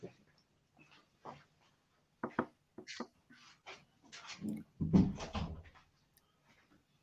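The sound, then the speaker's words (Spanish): A door is pushed shut with a muffled thud amid scattered scuffling and knocking noises, while a small dog whines faintly at the door on the other side, wanting in, fairly quiet. “el perrito llorando y lo tengo ahí en la puerta que está queriendo y he tenido que cerrar la puerta.”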